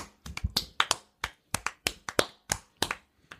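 hands clapping

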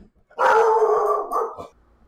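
dog howling and barking

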